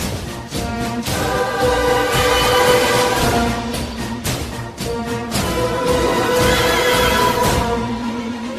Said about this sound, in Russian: Логично, что в главной роли тут ретро-футуристический инструмент терминвокс, издающий традиционные нечеловеческие звуки, заметно выделяющиеся из м, общей оркестровой фактуры.